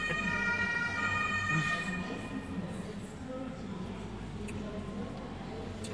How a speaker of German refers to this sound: schon wieder ein Krankenwagen irgendwo. Oder ist, es, oder ist es diesmal die Polizei?